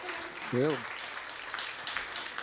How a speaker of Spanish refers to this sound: Dámosle un aplauso al Señor.